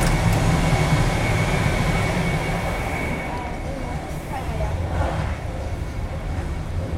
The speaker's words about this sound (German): Dieser Zug scheint ja überwiegend aus diesen alten Erste-Klasse-Wagen zu bestehen.